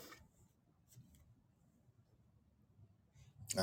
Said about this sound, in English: Let's turn our attention to Mark, the ninth chapter. You may hear some pages turning.